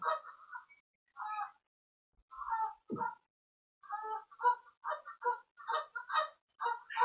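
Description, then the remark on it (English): Ducks quack repeatedly outdoors outside a boat, a series of nasal, honking calls in irregular bursts that grow busier toward the end, clear with no talking. “Yeah, there's some ducks out there on outside the boat.”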